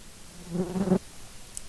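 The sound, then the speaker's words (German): A fly that has landed on the microphone buzzes loudly right against it for about half a second, a steady droning hum that cuts off abruptly, followed by quiet. “Jetzt kommt hier gerade eine Fliege und hat sich auf dein Mikro gesetzt und es war so laut im Ohr.”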